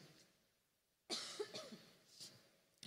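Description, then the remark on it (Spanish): A woman allergic to humidity coughs: a single sharp cough bursts in after a second of near silence, followed by a raspy tail and a softer second cough, with no talking. “si me escuchan toser, no tengo COVID sino que estos climas soy alérgica a la humedad y me da mucho, ¿no?”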